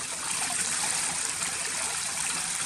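A mountain stream in Taiyuan, Taitung, Taiwan flows in a steady, broad rush of water, bright hissing splashes over a softer low murmur, constant and even throughout with no voices.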